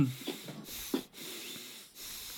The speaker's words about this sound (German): Oh ja. Hört sich gut an. Hört, hört sich, hört sich sehr gut an. ASMR Nasenluft.